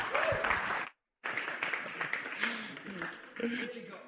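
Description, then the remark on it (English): An audience at the Light Church applauds with dense, steady clapping, broken by a brief silent gap, while scattered voices cheer and call out over the applause, cheering members for their generous financial contribution to the church. “So I personally want to say thank you so much, and I want to give you a cheer, even if you don't want to cheer yourself.”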